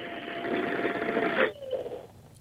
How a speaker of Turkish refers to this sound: Kurutma makinesi sesi. Kurutma makinesi.